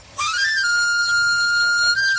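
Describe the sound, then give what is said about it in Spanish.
A knife sharpener's (afilador) whistle: a single shrill tone, held steadily for about two seconds with a faint wavering in pitch near the middle. A low rumble sits underneath, and no one speaks. “El afilador. Solo para los amantes del auténtico, crema de orujo, el afilador.”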